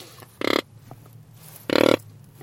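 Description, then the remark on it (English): Two short, buzzy grunting blasts from a reed game call, blown by mouth like a flute to imitate a rutting animal for hunting, loud and separated by about a second of quiet. “So this uh, works uh, kind of like a flute, this uh, tool yeah, that you're showing to me, right?”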